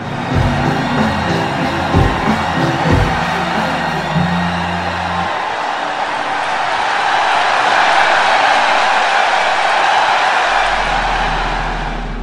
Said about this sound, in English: the audience lost their minds with cheering and applause.